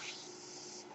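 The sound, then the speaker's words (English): The speaker's own medical ventilator pushes a soft, steady hiss of air, a continuous breathy rush that holds even for the whole second and swells slightly at the end, with no one speaking. “That noise you hear is my ventilator.”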